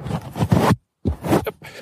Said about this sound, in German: ich will jetzt einfach mal gucken, wenn ich den Puschel abmache, ob die Soundqualität dann immer noch stimmt